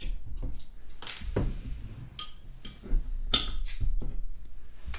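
Glass bottles clink together in a toast, a few sharp bright knocks with a brief ring, mixed with rustling handling noise and no one talking.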